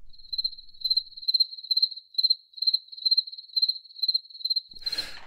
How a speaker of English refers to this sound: Those were crickets. Those were crickets.